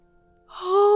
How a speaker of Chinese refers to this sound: 小熊爬上床，钻进被窝里，打了个大大的哈欠。